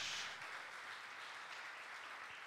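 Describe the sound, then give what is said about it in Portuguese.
A church audience applauding the Lord, a steady wash of many hands clapping together at an even, sustained level for the whole stretch, with no voices standing out above it. “Aplauda ao Senhor.”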